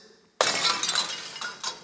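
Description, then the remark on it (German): A flower pot smashes suddenly after a brief quiet moment, followed by a loud scatter of rattling, clinking shards and a couple of smaller fragments settling nearby. “wo Dinge zerbrechen.”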